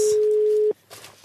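telephone ringback tone

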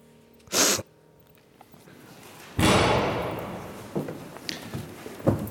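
door opening or closing

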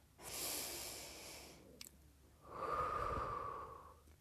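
deep belly breathing

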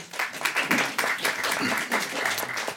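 audience applause

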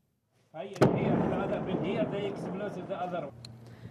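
explosion

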